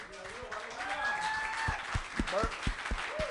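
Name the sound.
audience applauding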